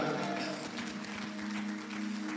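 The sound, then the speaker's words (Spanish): An audience applauds steadily, a dense wash of clapping that holds at an even level for a couple of seconds, with a sustained tonal hum, like an organ or keyboard chord, underneath. “Si tú lo crees, den un fuerte aplauso, Señor, y diga amén en este lugar.”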